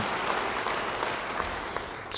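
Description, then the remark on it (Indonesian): An audience claps in steady, dense applause, a continuous crackle of many hands with no voices over it, holding an even level throughout. “Yang mau demikian beri tepuk tangan bagi dia.”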